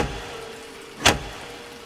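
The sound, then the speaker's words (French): A steady low hum of a vehicle interior sits under a single sharp, loud whooshing burst midway, an exaggerated foley effect used in place of film music, with a faint rise again at the very end. “où toute la musique a été coupée et remplacée par des butrages exagérés”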